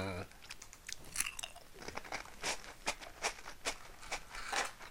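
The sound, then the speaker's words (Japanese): Crunchy Nabisco crackers from Mondelez Japan, made in Indonesia and eaten with margarine, being chewed in a steady run of crisp, bright crunches and bites, moderately loud, with short irregular pauses between chews and no speech. “マーガリンを塗って食べるわけこれが体に悪いよ体に悪いのは分かってるよだけどこれうまいんだよこれはうまいよおすすめ原産国インドネシアって書いてあるモンデリーズジャパンうん”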